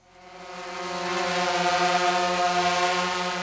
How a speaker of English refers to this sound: The drone floated into his field of vision, seeking its next victim. It buzzed like an annoying fly, and its sound made his blood boil.